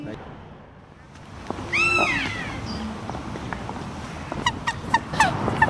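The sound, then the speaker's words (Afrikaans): Birds call in a bird park: a loud, wavering, drawn-out cry, then a quick run of short, sharp calls, all over a steady outdoor background hiss. “En hierdie twee lekker hulle wil ons groet.”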